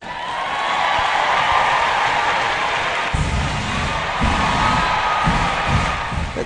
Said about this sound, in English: the sound of the crowd on finals night. Vector never sold out over the three days, but everyone seemed like they had a good time, and the netball was definitely entertaining.